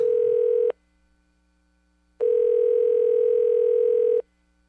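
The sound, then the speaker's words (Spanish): A telephone ringback tone plays while a call is placed to ring someone again: a steady, buzzy electronic tone sounds in two clear bursts separated by silence, fairly loud, with no one speaking. “Ah, voy a llamarlo otra vez, ver.”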